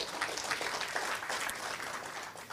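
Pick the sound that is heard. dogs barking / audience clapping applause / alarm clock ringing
audience clapping applause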